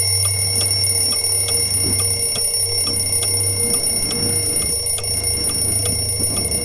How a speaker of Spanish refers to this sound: En un primer momento él se limitó a apagar la alarma, la vuelta al móvil y volver a acomodarse en su cama.